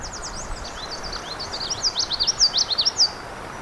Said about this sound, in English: I'm not going to follow that indigo bunting. It's headed towards my other recorder.